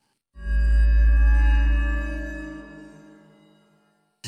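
An eerie, droning insect-like buzz with a rich harmonic hum starts abruptly, holds steady for a few seconds, then slowly fades. No one speaks.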